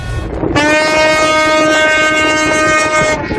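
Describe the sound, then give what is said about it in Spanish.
A tugboat horn on the Suez Canal sounds one long, loud, steady blast lasting about three seconds over a rumbling background, celebrating the refloating of the grounded cargo ship Ever Given, with no talking. “Esas son las bocinas de los remolcadores.”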